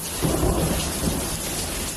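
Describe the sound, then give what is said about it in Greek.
Steady rain hisses throughout a thunderstorm with intense lightning in the Sporades islands of Greece, around Alonissos and Skopelos. Deep thunder rumbles roll underneath, swelling twice in low, heavy bursts. It is fairly loud, with no voices. “Από την έντονη κεραυνική δραστηριότητα στι Ποράδε, Αλόνισο και Σκόπελο έχουν σοβαρά προβλήματα ηλεκτροδότηση”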